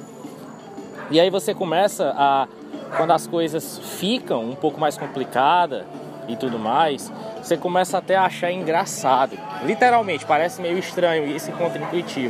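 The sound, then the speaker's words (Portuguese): A man talks steadily throughout while a low, continuous wash of street noise sits beneath his voice, with occasional brief clicks and knocks poking through. “Peço perdão pelo barulho, mas eu tô aqui na, na rua, entendeu?”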